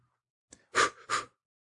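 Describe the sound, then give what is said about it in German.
A fairly loud breath, with a faint click followed by two quick breathy rushes of air, as someone takes a breath and holds it before going down under the water. No one speaks. “Luft anhalten. Ja. Eins, zwei, drei.”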